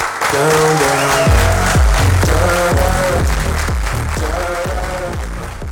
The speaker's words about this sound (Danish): Det lyder jo bare mega fedt, og klapsalver og musik, det kan næsten ikke blive bedre.